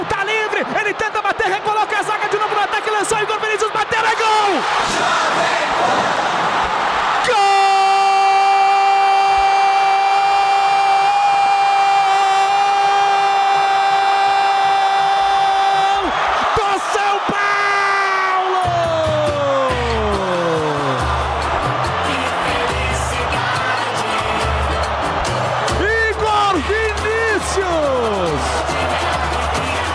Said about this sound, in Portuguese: mais que forte, fortaço e uníssono aqui no Morumbi, a galera grita